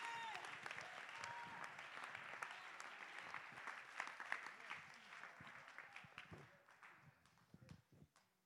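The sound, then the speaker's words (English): An audience claps hands in praise to God in a dense, steady burst of applause with a few voices mixed in, then the clapping thins out into scattered, separate claps before fading. “Clap your hands, lift your voice, and give God the praise that no flesh will glory in his presence.”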